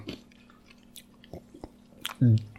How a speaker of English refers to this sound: Well, to give them credit, though, sorry, let me chew this ice. Chew it. Then sip some LaCroix while I'm at it.